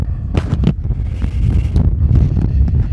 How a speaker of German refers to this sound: Oh, merkst du doch ganz schön windig, was? Ja, das knallt ganz schön da rein.